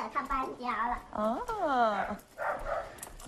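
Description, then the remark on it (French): A puppy at a family house gives a few high, wavering whimpers and short yelps in separate bursts, the pitch rising and sliding down, fairly loud over quiet background noise. “Le chien est là. Oh, un chiot, comme il est mignon.”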